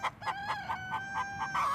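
A robust pedigree hen, gently pushed off its clutch of eggs in a barn during egg collecting, clucks angrily in a rapid, repeated series of sharp, nasal squawks, about eight bursts in under two seconds, loud over a faint background hum.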